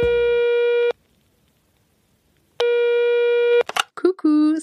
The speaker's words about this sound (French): Avant de lancer l'épisode, on écoute le répondeur du podcast.